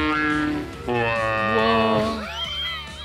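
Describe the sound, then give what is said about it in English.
A voice imitates a rumbling stomach with long, wavering, low groaning tones, close and fairly loud, the pitch bending and gurgling toward the end over about three seconds. “That's the sound of his Wait. intestines.”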